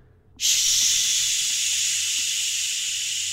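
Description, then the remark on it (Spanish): A voice imitates hissing static heard at night in a hotel with the TV off, coming from an open bathroom sink tap: a sudden, steady, bright hiss that starts abruptly and holds loud for about three seconds, easing slightly toward the end. “Y la tele apagada, pero se oía como estática.”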